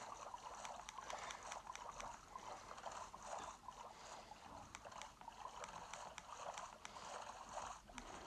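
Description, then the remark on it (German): Continuous splashing and trickling water from a rowing boat moving steadily through it in a video game, with rhythmic paddle-like swishes recurring every second or so, fairly loud, no voices. “Das Reisen hier mit dem Boot ist gar nicht mal so unpraktisch gerade, weil ich verbrauche kein Essen.”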